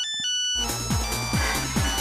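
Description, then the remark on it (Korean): A phone ringtone plays loudly for an incoming call while dancing to disco music at a nightclub, a bouncy electronic melody with a pulsing, repeating bass pattern that kicks in after a brief tonal intro, with no voices. “그렇게 경운기를 뒤로 한 채 나이트에서 흘러나오는 디스코 음악에 열정적으로 몸을 셀이 맡긴 채 노는데 전화가 오는 거예요.”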